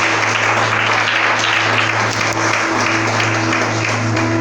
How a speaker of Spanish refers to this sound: Denle un aplauso a Jesús esta tarde, por favor.